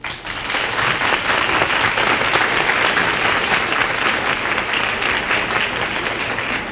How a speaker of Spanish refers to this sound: a la que vamos a saludar con un caluroso aplauso de bienvenida.